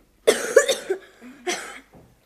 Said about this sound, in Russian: Что это? Что с тобой, ты кашляешь? Да, кашляю.